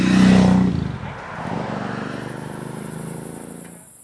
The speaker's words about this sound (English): Summer is the sound of crickets and cicadas, of motorcycles at night on a dark road,